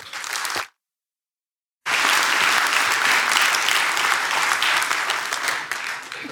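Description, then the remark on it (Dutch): Sustained audience applause for a speaker, many hands clapping densely, briefly cut off by a second of silence, then resuming loud and steady for several seconds. “eerst uw aandacht en een hartelijk applaus”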